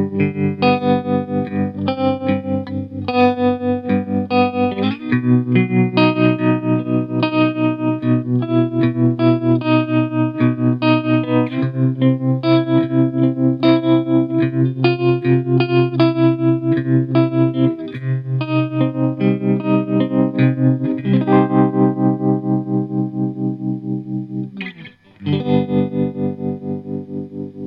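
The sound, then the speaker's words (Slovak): Distorted electric guitar chords throbbing with a fast, steady tremolo that chops the volume into rapid even pulses, playing alone for nearly half a minute with a brief break near the end. “A je to z toho dôvodu, lebo tremolo nám vlastne upravuje hlasitosť zvuku signálu. Ide o to, že tento efekt strieda pôvodne hlasný tón s tichom.”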